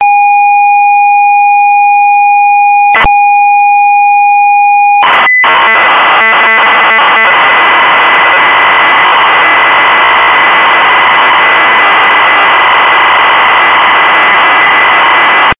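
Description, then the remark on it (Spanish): Computer game data played as sound, meant to be recorded so a game can be downloaded: a steady pure tone for about five seconds, then a loud, harsh, hissing screech that stutters briefly before running on continuously to the end. “Graba este sonido.”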